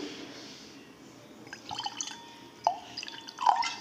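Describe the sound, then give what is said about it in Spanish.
White Riesling wine from Alsace is poured into a glass as a refill, starting after a quiet moment with soft gurgles and a few brighter splashes and drips toward the end. No one speaks. “Espérate, yo me sirvo un refil.”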